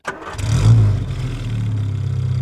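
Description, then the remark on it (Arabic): The big 409 V8 engine of a Chevrolet Impala convertible driven by Bunkie Knudsen cranks and catches, then roars with a deep, rumbling low-end growl that settles into a loud, steady throaty idle, with no talking. “وبينما يقود نوتسن سيارة إمبالا المكشوفة يزأر محركها من نوع 409 V8 القوي إنه الصوت المحبب لهذا الجيل”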